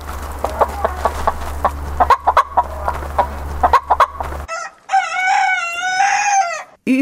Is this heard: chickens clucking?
yes